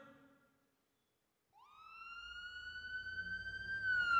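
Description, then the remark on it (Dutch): An ambulance siren starts abruptly after a moment of silence, a strong steady tone slowly rising in pitch and growing louder as the ambulance passes by on its way to the hospital, with low traffic rumble underneath. “hoor je de ambulance voorbij gaan en weet je dat ze alweer richting het ziekenhuis gaan.”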